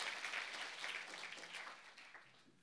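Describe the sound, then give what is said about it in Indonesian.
A crowd applauds for God, with dense, steady clapping that blends into a bright, crackling wash, holding strong before gradually tapering off toward the end. “Boleh tepuk tangan buat Tuhan.”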